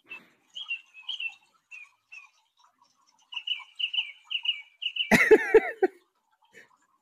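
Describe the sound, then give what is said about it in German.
A bird mimicking many different sounds runs through a varied series of chirps, whistles and clicks, then bursts into a loud, harsh rattling flurry before trailing off into a faint call; no talking. “Also es ist ein Vogel und der macht ganz viele unterschiedliche Geräusche nach.”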